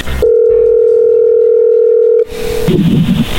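A steady, loud telephone dial tone holds for about two seconds, then cuts off briefly before a short burst of dialing and line noise follows, with no one speaking.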